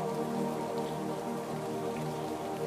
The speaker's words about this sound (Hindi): हाँ हम ये भी जानते हैं भगवान गुस्से में हो नाराज हो तो कुछ ज़्यादा ही पानी बरसाते हैं पानी फेंकते हैं कह सकते हैं हम इसे